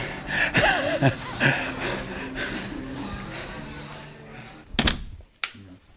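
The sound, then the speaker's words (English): People pass through doors on their way to breakfast, with background murmur and clatter, then a couple of sharp door clunks near the end. “we are coming through these doors.”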